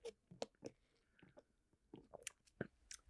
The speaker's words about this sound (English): Another sip.